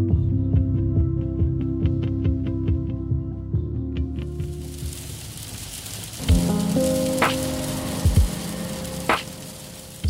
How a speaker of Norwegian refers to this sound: I dag er det grått. Regnet treffer hardt på biltaket.